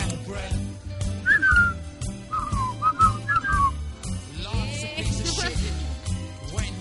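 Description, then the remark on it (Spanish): Someone whistles a short tune of several sliding notes, close and clear, over a steady, rhythmic musical backing that carries on after the whistling stops. “No sé silbar. sabes silbar? Sí, pero muy poquito”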